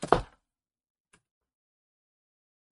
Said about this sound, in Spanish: No se está rompiendo mi silla, solamente se mueve.